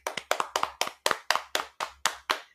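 A steady run of about fifteen sharp hand claps for Arielle Vandenberg, fairly loud and crisp, keeping an even rhythm of roughly two to three per second, with no talking over them.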